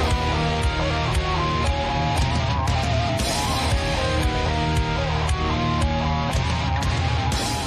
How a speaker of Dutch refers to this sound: Hier gaat het nog goed. De band begint eh, vol eh, vuur en passie aan een live set.